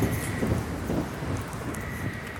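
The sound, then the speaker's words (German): An S-Bahn train rushes past as a steady, loud roar with deep rumbling underneath and a faint high whine, holding constant for a couple of seconds with no voices. “Ist gerade die S-Bahn hier vorbei rauscht.”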